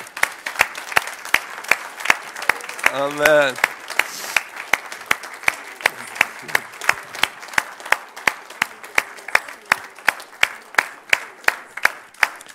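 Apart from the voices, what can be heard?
standing ovation applause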